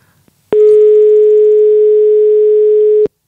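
A telephone line tone after a call drops: one loud, unbroken electronic tone holding steady for about two and a half seconds, then cutting off abruptly, with no voices.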